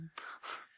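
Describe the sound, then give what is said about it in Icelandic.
Two quick, airy slurps, someone sipping coffee from a cup, each a brief breathy draw of liquid with a short pause between and no talking. “Ég er að reyna líka að taka sopa þessum kaffibóla.”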